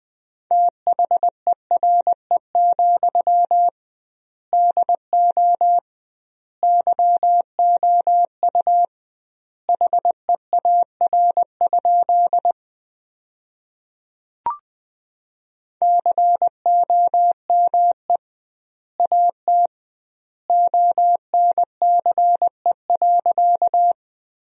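Morse code sent at 20 words per minute with double word spacing: a single steady, mid-pitched beep keyed into quick dots and dashes, grouped in bursts with longer pauses between words, clear and alone, with one brief click midway.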